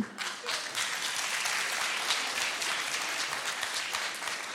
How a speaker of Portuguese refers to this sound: Quem são estas pessoas que estão a bater palmas a isto? São representantes do TikTok.